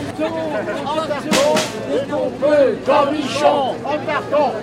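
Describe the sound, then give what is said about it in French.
Outdoor crowd hubbub in Place Saint-Pierre as Noël Gaudin greets his public, many overlapping voices chattering at once, steady, with a few louder shouts rising out of the babble. “Noël Gaudin est accueilli son public, place Saint-Pierre.”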